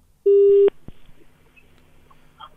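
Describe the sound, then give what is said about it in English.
A loud, steady telephone busy tone sounds once for under half a second as a phone call drops, cut off by a sharp click, followed by faint line hiss and quiet background noise. “it seems we may have lost Althea there”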